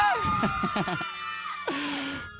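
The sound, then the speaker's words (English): A group of youths at a church gathering lets out a loud, sustained celebratory victory scream, overlapping yells rising and holding for a couple of seconds with a sharp burst near the end. “Victory scream!”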